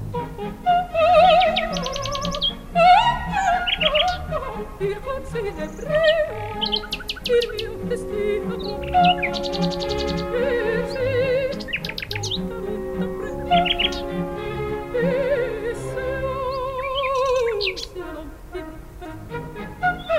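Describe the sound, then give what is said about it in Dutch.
A common nightingale sings clear in a dune woodland, a rich, varied stream of whistles, chirps and rapid trills, while a woman's singing voice holds long sustained notes beneath it. “Van Maria Callas de duinen, de duinen ingestapt en die nachtegaal bleef zingen.”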